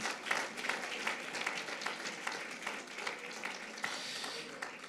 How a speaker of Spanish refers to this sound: Amén y amén, Señor. Aleluya. Si gusta de ese aplauso de alabanza al Señor.